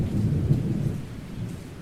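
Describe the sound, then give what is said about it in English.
Steady rain hisses beneath a deep, rolling rumble of thunder that swells and lingers, a continuous low storm wash with no voices present. “Outside, it was raining.”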